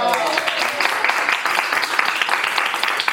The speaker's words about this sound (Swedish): Bra! Nu är jag klar med det här. Kan jag få en liten applåd? Ja!